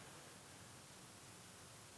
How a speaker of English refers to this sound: Yeah, you might want to turn it down just a tad because there's. Well, you're there's static. Right there?